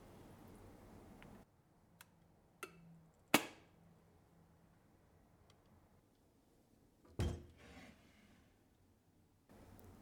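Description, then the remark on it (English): Porcelain mugs clink and knock as they are picked out from a large collection to choose a favorite mug for tea: a few scattered taps, one bright ringing clink, then a heavier clunk, with no talking. “I always really like picking out my favorite mug, so I have a lot of them here I have some clear ones.”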